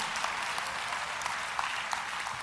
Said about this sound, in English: Come on, clap, everybody.